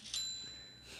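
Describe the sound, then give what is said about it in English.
A single bright electronic chime, a phone marketplace app message notification ding, rings out sharply near the start and fades with a thin sustained tone, clear with no talking. “That was OfferUp. I just got a message about something I'm selling.”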